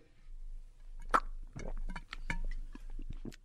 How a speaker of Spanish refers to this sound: Pero a ver, pero me tomo agüita. A ver, a ver si se puede escuchar que tomo agua o no sé.